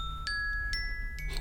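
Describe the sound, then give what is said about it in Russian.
A gentle alarm clock ringtone, used for waking up, plays soft, bright chime notes, about four evenly spaced tones that ring and linger, fairly quiet over a low background hum with no talking. “ты под э, какой звук просыпаешься? А, ну, я могу даже, на самом деле, я думаю, что продемонстрировать.”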